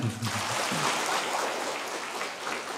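Steady applause from a crowd, a dense wash of many hands clapping at once without a clear rhythm, moderately loud throughout, with a faint voice murmuring underneath at the start.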